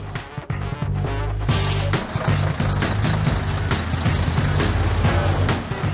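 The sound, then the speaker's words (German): A heavy truck drives into the yard of a waste-disposal depot, where vehicles are weighed on entering and leaving, with a loud, steady engine drone and low throbbing pulses, broad road and mechanical noise throughout and no voices. “Beim Rein- und Rausfahren werden die Fahrzeuge im Betriebshof gewogen.”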